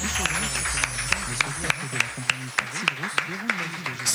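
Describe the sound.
Steady, evenly spaced handclaps from a small group of radio hosts and columnists gathered in a radio studio, moderately loud, with voices talking underneath throughout.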